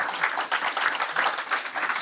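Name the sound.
audience round of applause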